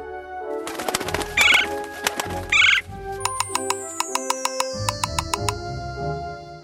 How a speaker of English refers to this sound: Good. The blue fairy calls some woodpeckers.